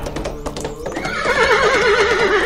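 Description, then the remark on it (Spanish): Hooves clop in a quick, uneven patter as the Charro Negro hurries his horse away by moonlight, then the horse lets out a long, loud whinny with a shaky, wavering pitch that carries to the end. No one speaks. “Fue entonces que el charro negro apresuró su caballo”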